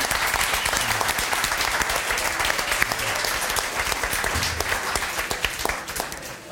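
Steady, dense applause from a sizable audience welcoming a man, many hands clapping at once in a continuous wash of sound that holds strong for several seconds before starting to ease off at the end.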